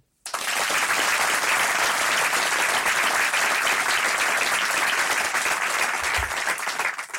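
An audience breaks into sustained applause, a dense, steady wash of many hands clapping at even loudness for about seven seconds before tapering slightly at the end.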